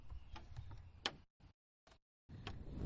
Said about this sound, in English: Oh yeah, that's actual physical chair rocking. When this chair's a rocking, that means I'm a talking.